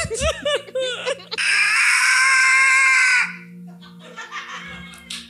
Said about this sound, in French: Et au bout du couloir, derrière vous, vous entendez un cri. Salut à la technique, ça va être bruyant. Il y a un monstre immense qui semble hurler derrière vous.